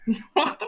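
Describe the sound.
A person gives a short imitation of a cough: a low voiced grunt followed by two rough, breathy bursts in quick succession, with nothing else around it.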